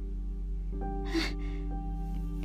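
A sharp, frightened intake of breath followed by a softer, shakier exhale, over a steady low electrical hum with no talking.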